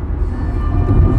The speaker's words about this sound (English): this is the sound of life. It's teeming out here, ladies and gentlemen. Today we are in traffic.